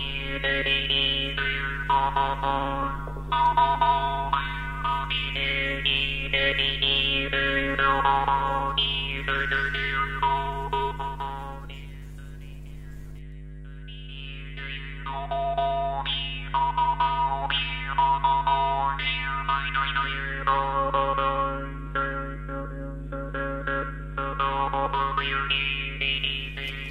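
A Mapuche trompe (jaw harp) plays alone, its steady buzzing drone topped by twangy, wah-like overtones that sweep up and down in rhythmic phrases, close and fairly loud throughout.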